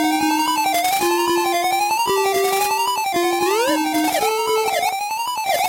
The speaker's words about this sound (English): It definitely sounds like a Master System game.